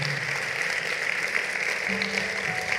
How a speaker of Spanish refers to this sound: Vamos, todo el que lo crea, que le dé un aplauso al Señor.